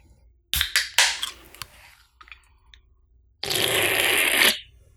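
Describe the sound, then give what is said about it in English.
A drink can cracks open with a sharp metallic pop and brief fizz, a few small clicks follow, then about a second of steady slurping as someone drinks. No talking. “So you guys notice that he pops the can and then drinks.”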